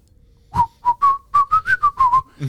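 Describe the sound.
Someone whistles the opening phrase of a guitar solo: about nine clear, fairly loud notes in a quick rhythm, the pitch rising a little through the middle and dipping back at the end. No talking.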